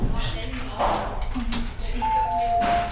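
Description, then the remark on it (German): Electronic alarm chimes from patient observation monitors ring out in a busy hospital emergency ward, a couple of clear tonal beeps sounding over background chatter and bustle. “Auf den Beobachtungsbildschirmen flackert, blinkt und läutet es.”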